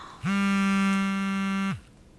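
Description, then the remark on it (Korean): A pager goes off in a café with one steady, buzzy electronic tone lasting about a second and a half, loud, then cuts out abruptly. No voices are heard. “아, 이 녀석도 삐삐를 치고.”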